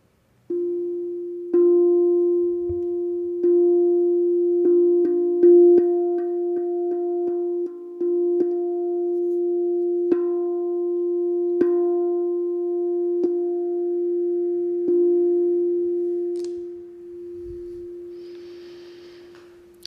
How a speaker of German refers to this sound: Und ich spiele den Ton F.